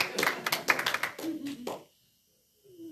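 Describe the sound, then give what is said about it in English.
An audience in a church claps hands in a quick, uneven burst of sharp slaps lasting under two seconds, with a voice calling over it. Then silence, and a voice briefly speaks at the end. “I finally got somebody to clap their hands.”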